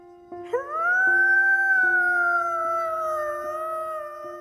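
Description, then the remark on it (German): A single sustained wolf howl from Maya, who stretches her head up into the air on a silent mountain, rises quickly, then holds a long, steady mid-pitched tone before slowly sagging and fading, mournful and unbroken, with no talking over it. “Plötzlich hat sie ihren Kopf in die Luft gestreckt und angefangen zu heulen.”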